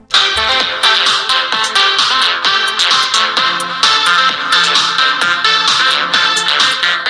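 Music from an MP3 file plays from the built-in speaker of a Penfriend device held up to a microphone, loud and continuous, with steady rhythmic beats and bright tonal layers for the whole stretch, with no talking.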